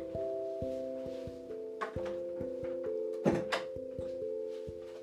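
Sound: door being closed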